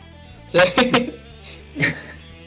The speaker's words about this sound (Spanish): Oye, ¿dónde son los perros, weón? Que ladran esto? De mi casa. Es que era porque estaban los pacos afuera, weón.